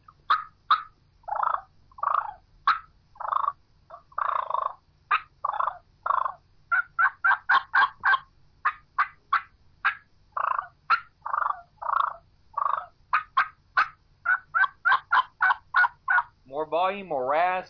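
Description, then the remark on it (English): Loud turkey hen clucks and rolling purrs fire off in a rapid, agitated series, with a short burst of rising yelps at the end; no talking. “you're going to throw a little louder clucks with a little rasp. We're going to get a little louder with those purrs”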